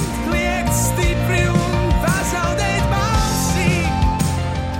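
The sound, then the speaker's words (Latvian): A song plays continuously at steady volume, with full instrumentation, sustained tones, percussive hits and a melodic vocal line weaving through; no talking over it. “Ja kāds nezina, kā tā dziesma skan, tā skan šādi.”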